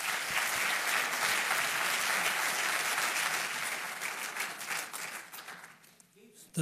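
A crowd applauds steadily as Misha Arens is introduced at his 90th birthday celebration, with dense clapping from many hands that holds strong for several seconds and then thins out and fades near the end.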